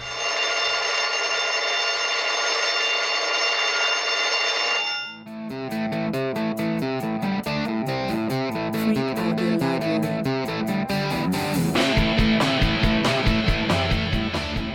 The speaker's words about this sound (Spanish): Y en eso suena la chicharra.